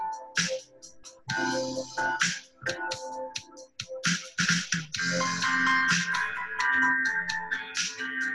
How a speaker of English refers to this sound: Those Contra mixtape sounds are taking me away. This is, ladies and gentlemen, our new theme song. Dude, and, the, and then the dissonance comes in, which totally mirrors the podcast.